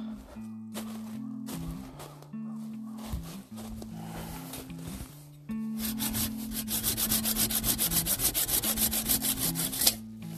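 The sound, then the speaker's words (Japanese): A handsaw rasps through a thin tree about 5 metres tall, cutting it down, starting with slower uneven pulls and settling into fast, steady back-and-forth strokes that grow louder and more regular near the end. No one speaks. “あとノコギリの音とかねあこれ1本切っとくか”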